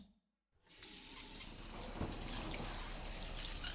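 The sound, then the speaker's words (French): After a brief moment of silence, shower water suddenly starts running and keeps up a steady hissing spray with faint splashing throughout. No one speaks. “M'avancer sous cette douche, me laver, me palper, me repalper, devant le miroir, me pincer, voir si c'est toujours là, si ça fait mal.”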